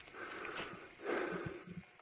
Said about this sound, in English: This is probably the longest segment of heavy breathing we've ever had on the show. I know.